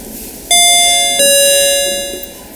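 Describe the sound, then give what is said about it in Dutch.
A two-tone doorbell chime, the jingle for the Bucky Service Desk segment, rings out clearly, a bright higher note followed by a lower one that lingers and slowly fades, with no talking over it. “voor we het heel vergeten, want ik hoorde jingle net.”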